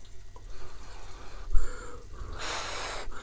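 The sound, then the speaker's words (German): Someone blows on hot, freshly cooked food to cool it before tasting it: a couple of soft, breathy puffs followed by one stronger, hissing blow, with no talking. “Er muss ja noch pusten.”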